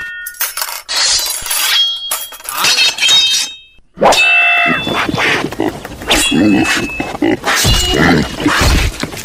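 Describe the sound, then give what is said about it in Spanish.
A pig (a sow) being struck with a sword and killed: a loud run of sharp, clinking hits mixed with brief, high-pitched squeals, with a short pause partway through before the blows and cries start again. “No, está muy bien, ya tenemos a la puerca muerta, fresquecita, pélala.”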